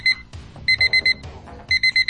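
A cheap alarm clock rings loudly in rapid bursts of shrill electronic beeps, grouped in repeating clusters with brief pauses between them, with no one speaking.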